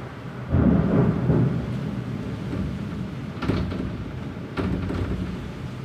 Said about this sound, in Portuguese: Tá caindo tudo, velho. Meu Deus. é que eu tô no meio da chuva, mano. Tô aqui pertinho da janela. Só vendo a chuva. E os trovões e os raios.